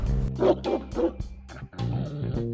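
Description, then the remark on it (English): A dog named Birba, a fat brown and white dog, barks a few times in quick succession, moderately loud, followed by a steadier, drawn-out whining sound. “I love my dog.”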